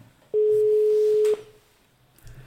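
A single steady telephone ringing tone heard on a call: one loud, even mid-pitched beep lasting about a second, then quiet line hiss with no voices.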